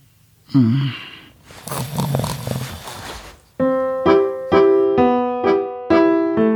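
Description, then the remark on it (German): A brief vocal sound gives way to one long, raspy snore lasting a couple of seconds, followed by a bright, plucked musical jingle of repeated notes. “Schatz, du schnarchst.”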